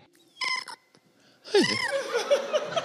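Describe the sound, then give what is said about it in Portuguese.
An actor imitates a cat, starting with a short nasal burst, then a long, strained, wavering yowl with rising and falling pitch, loud, like a sickly caterwaul. “Ai, um gato com toxoplasmose, não sei.”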